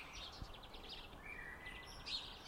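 small birds chirping outdoors

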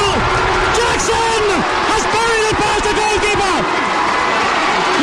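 stadium crowd cheering

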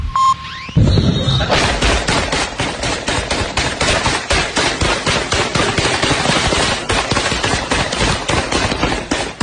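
gunfire sound effect

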